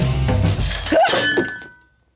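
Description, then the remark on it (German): A tray of egg salad, dropped when someone trips in a dining hall, crashes down with a loud clattering impact, followed by a brief ringing clink and rattle of dishes that quickly fades to silence. “Und dann stolper ich und mein Tablett mit dem Eiersalat fliegt durch die Luft.”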